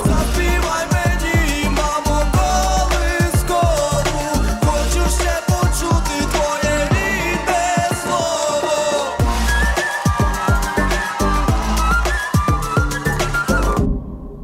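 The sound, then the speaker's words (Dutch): A loud, full pop song from Ukraine from 2022, with driving, punchy beats and a bright whistled melody weaving high above the dense instrumental mix, playing continuously with no talking. “Fluitje hebben ze gewoon overgenomen van die zangeres van, van vorig jaar.”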